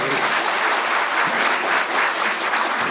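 A dense burst of audience applause, many hands clapping loudly and steadily for about three seconds, an even, crackling roar with no talking over it.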